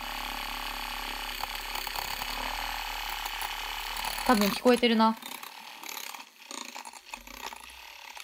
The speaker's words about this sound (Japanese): 混ざってる音聞こえるどうだいどうだいどうだいブイーン。